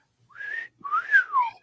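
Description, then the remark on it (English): A person whistles a short two-part tune imitating a pet cockatiel's call, a rising phrase followed by a longer swooping one, clear, with no talking. “We we had a cockatiel. Um, I love that bird, and every morning I would go in to make uh, coffee.”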